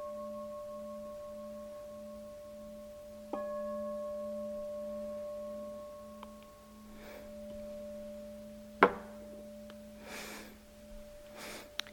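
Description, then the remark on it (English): A meditation bell rings with a steady, pure humming tone, struck once more early on, then slowly fades. A few soft breathy rustles follow in otherwise quiet surroundings. “No doubt about the sound of the bell.”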